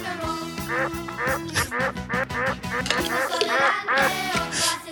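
A duck quacks over and over in quick, loud bursts as part of a rock and roll song, with a steady rhythmic musical backing running underneath.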